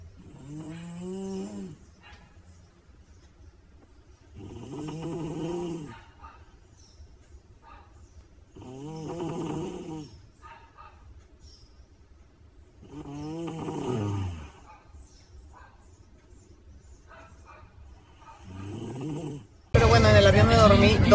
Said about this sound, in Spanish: bueno, aunque no dormí en Palma de Mallorca porque tengo una prima que amo, pero que bárbara como ronca. No dormí ni una hora.